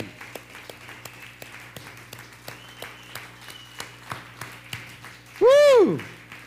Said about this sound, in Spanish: Dale un fuerte aplauso al eterno. Gloria al Eterno. un fuerte aplauso.